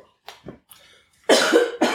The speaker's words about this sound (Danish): Og så var der en, der lige skulle hoste en gang. Det går nok. Det er sådan at komme på bagsiden af en forkølelse.